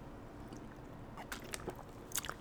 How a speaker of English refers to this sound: now, let me get a swig of water real quick. Hold on.